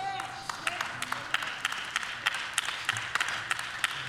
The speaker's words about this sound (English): Well, I'm getting a few hand claps. You don't expect to get much.